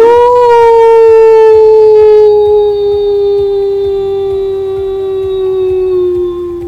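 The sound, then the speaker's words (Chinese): A voice imitates a wolf howl as the father wolf in a story shows off: one loud, long, sustained tone that holds steady and slowly sinks in pitch over about seven seconds, with rich harmonics and no talking. “他的狼嚎声很大声，很久哦。”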